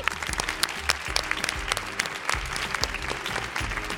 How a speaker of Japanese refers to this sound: じゃあ公開収録今回初めてだよっていう人拍手してください